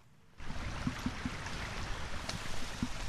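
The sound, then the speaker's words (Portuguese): Floodwater after heavy rain rushes steadily over the manhole covers and drains of a Portuguese cobbled road leading to houses in the Fontainhas neighbourhood, a loud, continuous gushing and splashing that cuts in abruptly after a brief quiet start, with small gurgles rising through the flow. “Este caminho, de calçada à portuguesa, vê a água a levar a melhor sobre as tampas dos esgotos e também os bueiros.”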